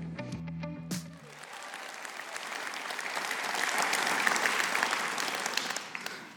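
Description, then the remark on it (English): An audience breaks into sustained applause welcoming a speaker, a dense wash of many hands clapping that swells slightly louder midway before holding steady, following a brief burst of tonal sound at the start. “So give a big hand clap and a welcome”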